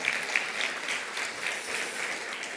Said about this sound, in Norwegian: Kan vi ikke bare gi dem en sånn liten ekstra applaus? Det er så bra, vet du.